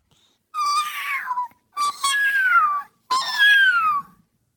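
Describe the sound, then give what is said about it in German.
A kitten at a veterinary practice meows three times in close succession, each cry long, high and plaintive with a falling pitch, fairly loud with short pauses between. “Als Lukas in der Tierpraxis ist, kommt er an einem Kätzchen vorbei.”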